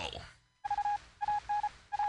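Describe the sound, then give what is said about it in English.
A steady electronic tone pulses on and off in long and short bursts, a Morse code radio station identification over a noisy background, after a brief murmur at the start. “Yeah, uh, by the way, this is Morse code for hire me, Warner Brothers.”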